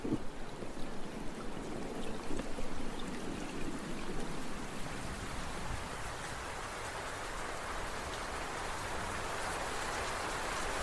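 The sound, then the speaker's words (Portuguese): Heavy rain pours down steadily over a savanna in the daytime in a dense, hissing wash, with thick, cold drops pattering and a constant roar that never lets up, under a sky black with heavy clouds. “A chuva caía intensamente no meio daquela savana, com pingos grossos e gelados.”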